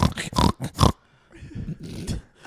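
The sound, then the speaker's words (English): A voice imitates a pig, letting out a burst of loud, rough snorts followed by quieter grunting, snuffling breaths. “This is un swine, pendejo.”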